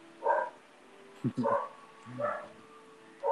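dog barking

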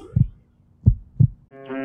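heartbeat sound effect

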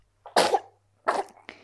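sneeze or cough

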